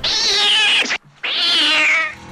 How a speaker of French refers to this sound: Est-ce qu'un film d'horreur vous a déjà fait le coup du chat